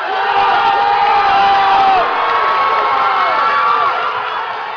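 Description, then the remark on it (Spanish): A large crowd of fans in a gym in a small town in Alaska cheers and screams continuously as 17-year-old swimmer Lydia Jacoby wins the women's 100 metres breaststroke, with high-pitched shrieks and whoops rising over a dense, loud roar of voices that holds steady for several seconds. “mostraron a una multitud de aficionados en un gimnasio en una pequeña ciudad de Alaska cuando la nadadora de 17 años Lidia Jacobi ganó los 100 metros estilo pecho categoría femenina y este era el festejo que se escuchaba.”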